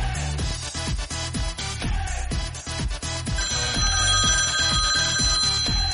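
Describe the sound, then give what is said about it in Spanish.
A phone's ringtone sounds over loud, rhythmic dance music, its steady high tones entering partway through and continuing to the end without voices. “Ay, Dios mío, está sonando el teléfono”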